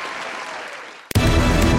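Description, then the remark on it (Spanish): Recorded applause: a steady wash of clapping that cuts abruptly into a louder, fuller burst of cheering applause partway through, with no talk over it. “Este aplauso es para usted. Es grabado, pero es lo que hay.”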